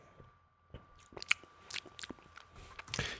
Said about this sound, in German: habe gerade nochmal den, den zweiten Schluck genommen aus dem mhm. Glas. Ist das schon leer?